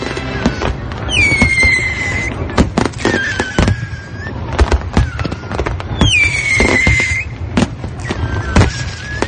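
Fireworks going off in a steady barrage: sharp booming bangs and crackles, with several rockets whistling as they shoot up, set against a constant low rumble.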